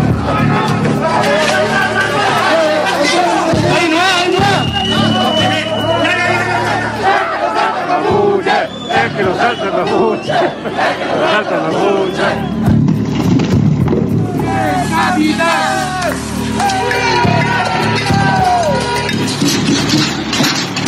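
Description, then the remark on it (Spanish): A loud street protest crowd shouts and chants continuously, many voices overlapping in a dense roar, with occasional sharp clattering bangs of barriers being thrown. “Están escuchando las, protestas, como tiran vallas y, protestan, aún con el distanciamiento social.”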